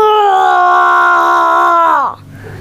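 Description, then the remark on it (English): A child's voice imitates a tiger's roar: one loud, sustained, fairly high-pitched cry held steady for about two seconds before sliding down and cutting off. “You all make really good tiger”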